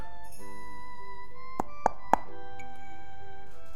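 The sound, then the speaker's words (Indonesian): Three crisp knocks on a house door in a village, made by a team going alley by alley knocking on every door, in quick, even succession, distinct, set against a quiet, steady musical backdrop with no one speaking. “pasukan Juki menelusuri satu demi satu gang dan mengetuk setiap pintu rumah”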